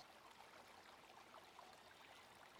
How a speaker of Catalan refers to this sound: Et quedes escoltant i sents el soroll d'un rierol que corre allà lluny. Sents la remor de l'aigua, sents la remor dels arbres.